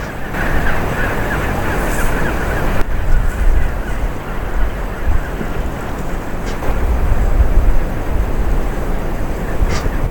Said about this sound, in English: Okay, so I've got the uh, longer sound recorder and is picking up the sounds of the waves on the beach and the penguins on Penguin Island really clearly. So I'm going to leave you with a bit of that sound.